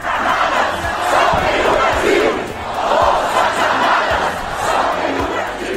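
A large crowd of Bolsonaro supporters protesting outside military barracks in Brazil, with banners, demanding military intervention after Lula da Silva's election win, shouts and chants together in a continuous, dense roar, with swells of louder yelling every couple of seconds and scattered low thumps beneath the din.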